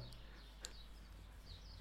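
A few faint bird chirps in South Tyrol sound sporadically over a low, steady background hum, with no one talking.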